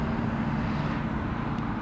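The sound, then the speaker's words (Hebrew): A Yotvata truck rumbles by with a heavy, steady low engine drone that stays at an even, fairly loud level throughout, with no voices. “רגע, ניתן למשאית לעבור. איזו משאית זאת?”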